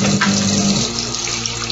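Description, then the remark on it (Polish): Soapy hands being rinsed under a running tap: a steady rush of water with a low pump-like hum in the first moments, continuing evenly without any voices. “ja zaraz tam podejdę, tylko sobie dokończę łapska, spłukiwać z tego mydła.”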